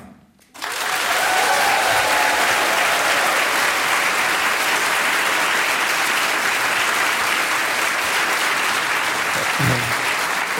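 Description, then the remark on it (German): A loud, sustained round of audience applause welcoming guest Iva Leon Menger starts abruptly after a brief quiet moment and continues steadily with dense, crackling clapping for about ten seconds. “Reichte dir, reichte dir der Applaus oder möchtest du nochmal?”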